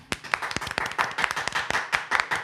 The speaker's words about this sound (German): Warum man auch immer dafür Applaus klatscht.